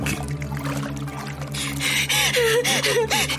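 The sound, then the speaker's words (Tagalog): Water splashes and gurgles as a person who slipped into a deep, foul-smelling river struggles and nearly drowns: bubbly, churning bursts grow louder and more turbulent toward the end, over a steady low droning hum in the background. “Halos malunod ako sa ilalim ng mabahong tubig.”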